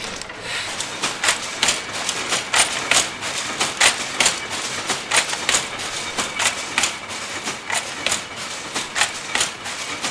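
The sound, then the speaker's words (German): A sample carding machine at the textile museum in Forst runs with a steady, rhythmic mechanical clatter, sharp bright clacks repeating about twice per second over a continuous whirring hum, recorded in acoustic detail with no voices. “Was wir hier gehört haben, sind der 1000 PS Motor vom Funkerberg, der Heidelberger Tiegel in der Museumsfabrik Pritzwalk und ein Musterkrempel aus dem Textilmuseum Forst, jeweils in akustischen Detailaufnahmen.”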